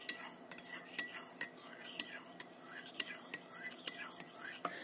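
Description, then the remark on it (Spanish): A spoon clinks against the inside of a coffee cup again and again in a quick, steady stirring rhythm as someone has their coffee, fairly quiet, with a soft hiss underneath. “Estoy tomando mi cafecito y ahora cada que hago esto”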